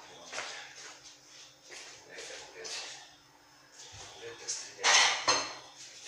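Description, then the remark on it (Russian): Kitchen handling noises as a plate is taken out among soft rustles and bumps, ending in a louder pair of dish clatters near the end. “Возьму-ка я еще одну тарелку.”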